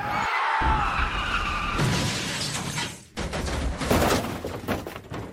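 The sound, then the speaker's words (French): A tram violently crashes into a bus: a metallic screech of braking gives way to loud impacts, shattering glass and clattering debris that continue for several seconds. No voices. “Quelques minutes plus tard, un tramway a violemment heurté le bus.”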